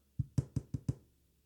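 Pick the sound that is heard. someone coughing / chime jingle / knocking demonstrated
knocking demonstrated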